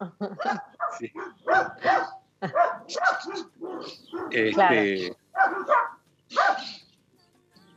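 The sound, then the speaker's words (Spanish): Dogs bark at a neighbour passing on horseback in a rapid string of sharp yaps and bow-wows, with a longer whining bark near the end, while a person speaks intermittently over the noise. “es que pasa un vecino a caballo y, ellos este, lo labran.”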